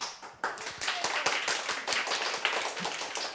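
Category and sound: crowd, applause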